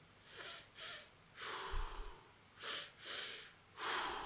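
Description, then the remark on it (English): A voice imitates a woman's loud, heavy breathing: a series of about six harsh, airy inhales and exhales in an uneven rhythm, with no talking. “Like her breathing, without a doubt, if we could get somebody who professionally manages decibel levels, definitely louder than our whispers.”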